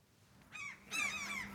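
Seagulls that have taken over a rooftop terrace in Drammen, Norway, circling a few metres overhead, call out in two harsh, wailing cries, a short one followed by a longer, louder squawk, with no talking.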